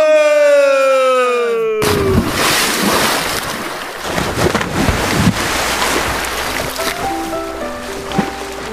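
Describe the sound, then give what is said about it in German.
A descending whistle-like tone leads into a sudden, loud splash of someone cannonballing into a pool, followed by several seconds of churning, sloshing water and a few faint tonal sounds. “Und Aschbombe! Arschbombe!”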